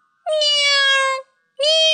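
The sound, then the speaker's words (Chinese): Two loud, drawn-out cat meows: a long, steady, high-pitched call of about a second, then a short pause and a briefer second meow. No talking. “十一只猫钻进了袋子，哼，里面好宽敞啊！”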